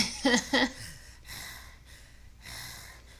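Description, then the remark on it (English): A voice imitates a man heavily mouth breathing over a woman's shoulder: two quick voiced huffs, then two long, raspy breaths drawn in and pushed out, moderately loud with no words. “just mouth breathing over her shoulder.”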